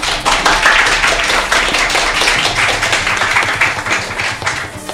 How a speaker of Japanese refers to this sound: それでは早速バトンタッチしましょう皆さん大きな拍手でお願いします